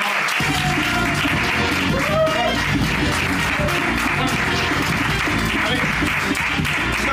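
Loud, sustained applause with dense, steady clapping that fills the whole stretch at an even level, with faint voices mixed in beneath it.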